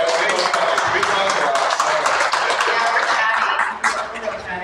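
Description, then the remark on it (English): Sustained audience applause for the butcher, a dense, loud wash of many hands clapping at once, holding steady for several seconds before easing off near the end. “just everybody, put your hands together for the butcher.”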